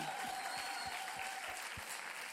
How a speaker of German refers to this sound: Seid ihr bereit? Lasst uns aufstehen und Gott einen riesen Applaus geben. Kommt! So laut es geht.